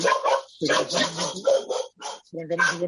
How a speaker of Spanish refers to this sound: y perdonad es mi perro. Nada, pero es normal que los perros saltan, sobre todo ante timbres eh,